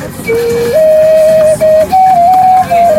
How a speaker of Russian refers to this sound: Это что, это игрушки? Да, игрушки, свистульки. свистульки. А покажите, как они свистят.